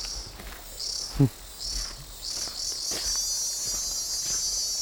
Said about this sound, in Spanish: Você já tinha escutado o som da cigarra?